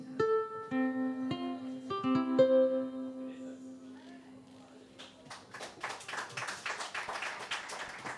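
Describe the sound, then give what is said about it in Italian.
A melodic vocal line with held notes winds down, then audience applause breaks out, a dense crackling wash of many clapping hands that fills the final seconds. “questo è l'applauso del volume.”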